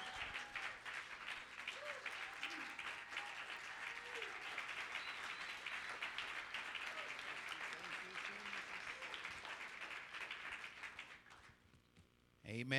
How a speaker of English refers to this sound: Let's give the Lord a big hand, amen.